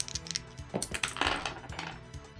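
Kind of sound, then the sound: two six-sided dice rolling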